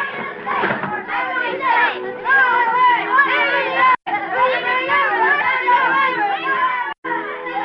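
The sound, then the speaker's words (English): A lively group of children's voices laughing and singing together outside on a foggy, cold day on Baker Street, heard from indoors, overlapping and continuous, with two brief pauses in the noisy chorus. “From outside, we could hear the sound of voices laughing and singing.”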